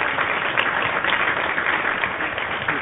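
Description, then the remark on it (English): A dense, steady wash of many hands clapping, like continuous applause, on The George Wilder Jr. Show on a rainy day in Chicago, holding at an even, fairly loud level throughout with no pauses and no talking. “clapping because it's raining.”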